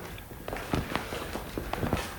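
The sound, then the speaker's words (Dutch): Footsteps walking through a side room at a steady pace, each step a short tap on a hard floor, with a quiet roomy background and no one talking. “Want we lopen nu door een soort zijruimte.”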